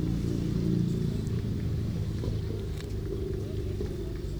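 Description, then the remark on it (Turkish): A car exhaust rumbles loudly, a deep, steady engine drone whose pitch wavers slightly as the throttle is blipped, running throughout with no voices. “Özel olarak egzoz sesinden bahsedelim harika. Ara gazdan bahsediyoruz yani.”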